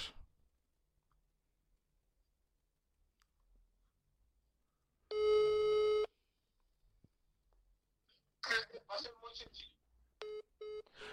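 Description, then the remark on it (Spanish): A phone line beeps with a steady electronic tone, then after a brief burst of talking, short repeated busy-signal beeps pulse at an even rhythm, clear, as the person called answers and then hangs up. “me contesta y me cuelga”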